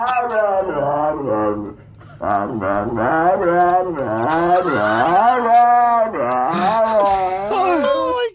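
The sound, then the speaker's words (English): A dog makes a run of drawn-out, wavering howls and moans that rise and fall in pitch, mimicking the rhythm of human speech as it repeats its owner saying "blah blah blah", loud and continuous with a brief pause early on. “that's where the dog is repeating the owner saying blah blah blah.”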